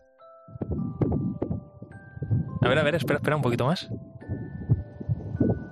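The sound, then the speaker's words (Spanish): A rapid, steady whooshing thump of a fetal heartbeat, picked up by a microphone held against a pregnant woman's belly, pulses continuously beneath a woman talking quietly, with a faint electronic tone humming in the background. “Es el corazón enérgico de un pequeño que bombea en el interior de su mamá”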